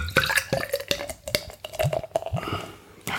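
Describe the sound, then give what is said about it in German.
Bock beer pours into a glass with irregular glugging and splashing, bubbly liquid sounds that rise and fall in pitch over a few seconds, with no one speaking. “Wie schön du das hier für den Hörer einfängst, das Geräusch des Einschüttens.”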